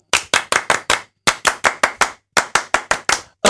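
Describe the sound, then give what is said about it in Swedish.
A French applause: rhythmic group hand clapping in quick bursts of three or four sharp claps separated by short pauses, loud, with no talking. “Ska vi avsluta alltihopa med en fransk applåd?”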